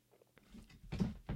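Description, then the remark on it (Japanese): A few dull, low thumps of a foot knocking against a desk while filming a YouTube video, one stronger bump near the middle and another toward the end, fairly soft with no talking. “であるいはこうなんかこう机にこう足が当たった音とか”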